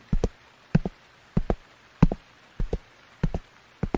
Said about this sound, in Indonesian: Tiba-tiba terdengar langkah kaki dari kejauhan yang segera mendekat melewati pintu ruang UKM ini.